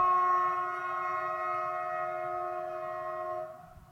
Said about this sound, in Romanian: N-am mai zis tu mie o capitală europeană pe unde trece trenul prin cartier. Cu viteză, fără garduri.